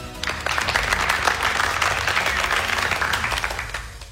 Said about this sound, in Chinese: 她就是司仪。掌声有请司仪上台。